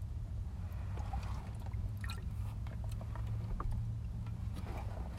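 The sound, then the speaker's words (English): Beer being chugged: a steady run of wet gulps and liquid sloshing over a low, constant rumble, with small clicks and swallows scattered throughout, no talking. “That means you got to chug your fucking beer over there before we end it.”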